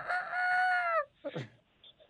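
A single bright, harmonic rooster crow, held for about a second before dropping off at the end, followed by a couple of short, rough clucking bursts. No one speaks.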